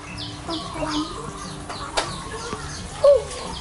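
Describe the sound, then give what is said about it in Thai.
Chickens and ducks at feeding time: scattered clucks and soft squawks with some wing flapping, and one sharper call near the end, against a busy outdoor background. “มันจะกินเนี่ยมีไก่เป็ดไข่ปลา”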